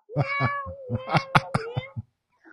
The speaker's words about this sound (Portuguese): Então, Vou embora. O meu gato tá me chamando, ó.